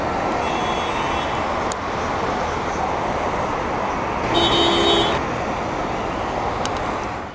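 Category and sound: vehicle, busy street traffic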